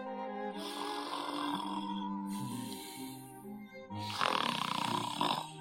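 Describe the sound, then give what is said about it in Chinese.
A frog snoring through a nap: three long, drawn-out, throaty snores in a row, each a few seconds, with the last one louder and rougher. No one speaks. “可是青蛙小弟还在呼呼大睡呀。”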